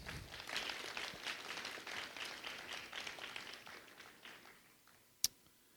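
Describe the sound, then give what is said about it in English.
A smattering of audience applause, a dense patter of many hands clapping at moderate volume that gradually thins and fades out, followed by one sharp isolated clap near the end. “yeah, you got a little bit of applause.”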